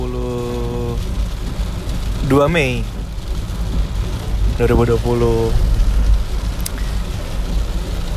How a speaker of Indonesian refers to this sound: Suasana Nge-record podcastnya tuh beda Karena gue lagi di mobil Gue lagi nyetir Dan sekarang kondisinya hujan deras banget dan malam hari juga